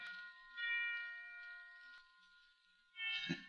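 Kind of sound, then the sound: signal or alarm, church bells ringing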